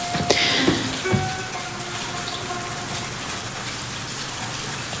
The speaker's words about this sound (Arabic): وفي كتير صوت مطر برا